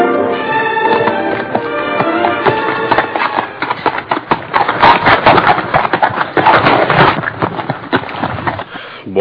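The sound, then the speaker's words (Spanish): Horse hooves clip-clop in a quick, steady series of hard knocks, fairly loud, with a faint tonal murmur underneath at the start. “Si quieres, bájate del caballo para que descanses.”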